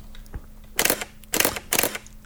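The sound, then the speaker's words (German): Three crisp shutter clicks from a new full-frame 5D DSLR camera, spaced unevenly about half a second apart, each a sharp mechanical snap, preceded by a faint softer tick, with no voices present. “Du hast nämlich jetzt auch eine neue Kamera.”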